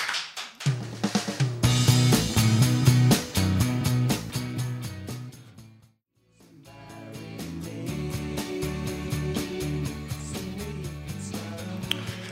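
A pop rock song plays loudly with a full band and steady, punchy drums, cutting out to near silence for a moment midway before the music comes back in at a slightly softer level.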